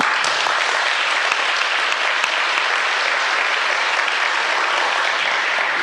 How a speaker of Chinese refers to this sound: 呃，拍手固然是拍手啦，哈，这个还是要大家共同努力的。